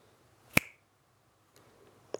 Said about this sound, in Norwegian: Prøv igjen, da. Prøv å knipse om 20 sekunder fra tre, to, én, nå. Der.